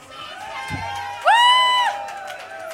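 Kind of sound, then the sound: crowd, audience applause and cheering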